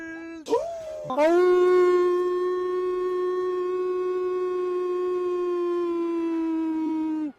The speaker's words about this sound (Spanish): Aullidos.